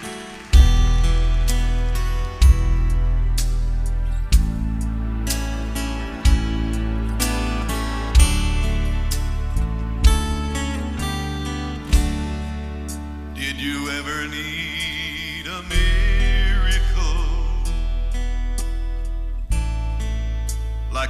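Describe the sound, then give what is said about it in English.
A recorded song plays loud, an instrumental stretch with deep sustained bass notes landing roughly every two seconds under shimmering higher tones. No one speaks over it. “Brother Joey, play that song and let's, let's listen to it.”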